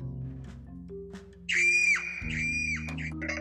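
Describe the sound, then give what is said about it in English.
A high, piercing scream rises suddenly over a steady low hum, holding for about a second before breaking off, then a second shrill cry follows. Both are loud, with no talking. “He heard a loud scream”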